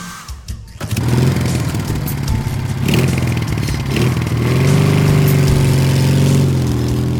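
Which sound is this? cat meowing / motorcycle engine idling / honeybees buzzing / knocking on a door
motorcycle engine idling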